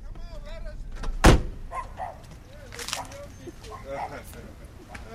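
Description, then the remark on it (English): A car door shuts with a single sharp thump, followed by muffled movement and indistinct voices talking, as people get out of a car that has pulled up in front of a man's home. “But well, we're going to get out for a minute just to meet and greet.”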